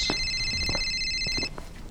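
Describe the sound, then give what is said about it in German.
Police inspector Markus Maria's telephone rings with a steady, high electronic tone for about a second and a half, then cuts off, over faint low background rustling, as he walks down a corridor. “Julius und Markus Maria sind keine zehn Schritte den Gang hinunter, als Markus Marias Telefon läutet.”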